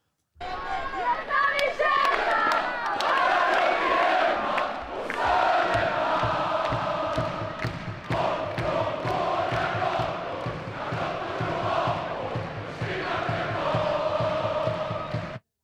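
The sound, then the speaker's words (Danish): A large football stadium crowd of 18,537 at the Stockholm local derby between Hammarby and AIK roars and chants continuously, a dense wash of many voices with rhythmic swells and shouts, loud throughout the whole stretch. “Og som man måske kunne høre i lydklippet, så tiltrak den her kamp rigeligt med tilskuere.”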